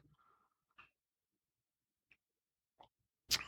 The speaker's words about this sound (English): I'm going to take a little sip from my my Starbucks Star Wars cup.